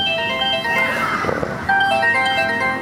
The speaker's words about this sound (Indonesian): wah sebentar ya ada ya, telepon